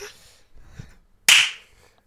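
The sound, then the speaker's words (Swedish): A single sharp, loud hand clap rings out with a bright, snappy crack and quick decay, preceded by faint low rustling and muffled noise. “undrar, hur länge jag kunde hålla på till, eh, när ni slutar klappa liksom.”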